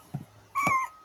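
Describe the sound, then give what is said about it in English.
A single short meow from Troy, a cat, fairly loud, with a clear tonal pitch that rises and then fades. It follows a couple of soft thumps or rustles as the cat is put close to the camera, with no talking. “I thought he was going to mew.”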